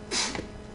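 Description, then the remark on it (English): A single sharp sneeze bursts out, a quick hissing blast that fades into a short breathy tail, with no talking around it. “Bless you.”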